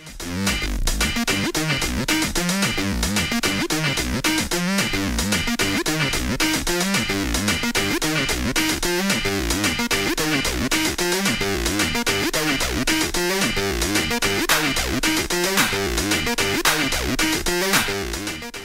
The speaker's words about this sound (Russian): А, кислотный бас синтезатора Roland ТБ-303 — это один из самых распространенных звуков э, в современной электронной музыке, и без него не было бы acid house вообще. Ну, acid house, да. Вот acid house, Да. А, он звучит вот так.